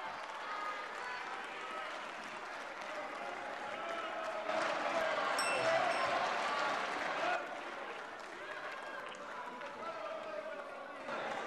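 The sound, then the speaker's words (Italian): Sustained audience applause, a dense crackle of many hands that swells louder through the middle before easing back, with a murmur of voices mixed in underneath. “Non c'è il divieto di applauso.”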